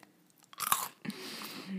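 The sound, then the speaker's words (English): Close-up crunchy chewing of toast cereal, a loud crisp bite followed by steady wet munching right at the microphone, with no talking. “I'm just fully chewing in your ear, y'all.”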